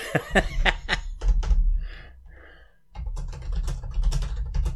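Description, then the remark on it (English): Rapid clacking of fingers typing on a computer keyboard, fairly loud, in quick irregular bursts with a brief quieter pause midway, over a low steady background rumble. “Well, I have been typing.”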